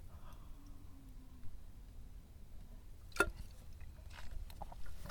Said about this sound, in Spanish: Pausa para más trago de café. Estoy tomando café muy rápido.